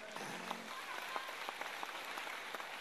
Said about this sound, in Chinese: 如果说你觉得慧律法师，有那么一点点优点，那么就来一点掌声。